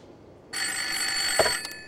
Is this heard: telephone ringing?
yes